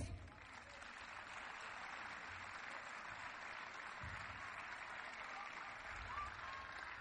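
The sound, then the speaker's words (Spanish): Sustained audience applause for the people from Valdo Lérez, a dense steady wash of many hands clapping that holds at an even, moderately loud level for the whole stretch, with no voices standing out. “forte aplauso para os do Valdo Lérez.”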